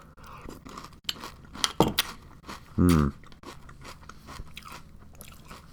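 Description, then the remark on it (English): Crunching of a spoonful of cereal, with a steady series of crisp, brittle chews repeating throughout and a brief hummed murmur from the eater partway through. “You're extra cool, uh, super cereal fan, and uh, I I crunch I crunch a spoonful to you. Here I go.”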